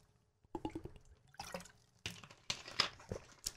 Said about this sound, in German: Darauf erstmal Schluck Wasser.